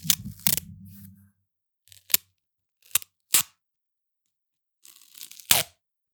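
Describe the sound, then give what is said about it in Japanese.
Loud rips of adhesive tape pulled off a roll come in several short bursts with pauses between them, plus a low rumble at the start and softer handling noises. “それな、何それ何のテープそれガムテ養生お急な ASMR。”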